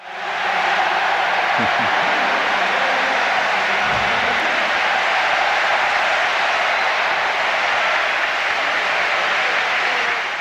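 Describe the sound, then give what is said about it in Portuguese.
At a medal ceremony, a large crowd applauds Quelimo, announced as the silver medalist, loudly and steadily for about ten seconds, a dense unbroken wash of clapping with voices mixed into the noise. “Quelimo, anunciado com a medalha de prata, recebeu aplausos de campeão.”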